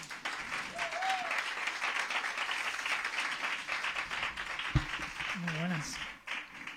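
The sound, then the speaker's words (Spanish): An audience applauds steadily for several seconds, a dense wash of clapping hands with faint whistles and brief cheering voices rising above it near the end, welcoming the director of a film about Bárcenas. “Un aplauso, por favor.”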